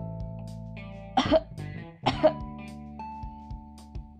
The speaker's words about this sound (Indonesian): Kemudian, pada tarikan nafas keempat, tahan nafas dan lakukan batuk dua kali kurang lebih seperti ini.